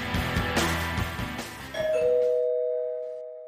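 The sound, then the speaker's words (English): A doorbell chimes over a busy background of music-like tones, ending in a clear two-note ding-dong that rings out and fades slowly into silence. “Someone's at the door.”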